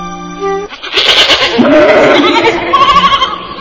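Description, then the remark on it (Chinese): Several goats bleat over one another in wavering, nasal cries, loud and overlapping for about three seconds after a brief low hum at the start; the goats are licking tree trunks. “哎，奇怪，那些山羊在那儿干什么呢？”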